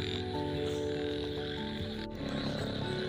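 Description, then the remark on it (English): A dense chorus of frogs croaks continuously, several overlapping voices fairly loud, over a soft, steady hiss of light rain, heard while walking along a road near a jungle. No one speaks. “i'm walking near a road near jungle so there are lot of disturbance for that i'm saying sorry from my gate of my heart and uh, it's time for raining so that frog is the frog sound is coming and it's little bit raining”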